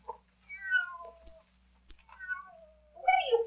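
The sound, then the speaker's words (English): A cat meows repeatedly in drawn-out, wavering cries, three distinct calls across a few seconds, clear over a faint low hum. “Somebody cat.”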